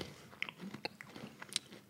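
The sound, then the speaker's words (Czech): Someone chewing food with a series of short, crisp crunches at an irregular rhythm, fairly quiet, with no talking over it. “Já to ještě dojím, ještě si vem jednu.”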